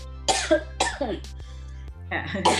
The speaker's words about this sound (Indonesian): Ini maaf lagi batuk mungkin ya. kering, kering.